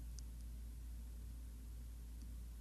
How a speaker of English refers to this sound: Well, if you did, it's only because there's a little bit of a hum of my hot water heater that's on the other side of the wall behind me.